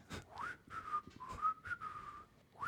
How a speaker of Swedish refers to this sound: Eh, nu blir jag lycklig. Nej, det, det är typ omöjligt att vissla och vara arg samtidigt. Prova det nästa gång du blir arg.